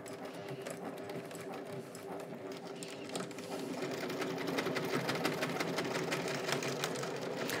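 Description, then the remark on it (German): A sewing machine runs steadily, its rapid needle strokes forming a dense, even rattle that grows a little louder and heavier partway through as it stitches through all the fabric layers where a bag handle lies up to four layers thick. “Also hier zeigt sich wieder mein toller Trecker, der wirklich äh, durch hier sämtliche Lagen geht.”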